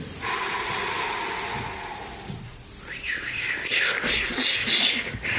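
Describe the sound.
Two people use their voices to imitate the wind and sea waves heard on a sailboat: breathy, hissing whooshes, a steady airy blow at first, then louder swelling, surging rushes like waves washing in, continuous for several seconds.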